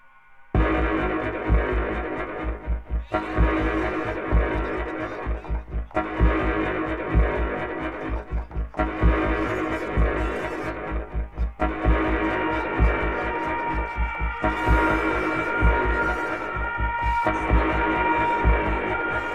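Abstract experimental music built on a dense, droning hum with a steady low throbbing pulse, sustained tonal layers shifting in blocks separated by brief breaks; no voices.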